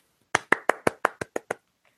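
Eight quick, evenly spaced hand claps, sharp, like a single person applauding briefly as a round of applause on a show, with no talking.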